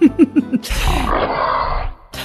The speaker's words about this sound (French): Ah, il y a une moto qui passe.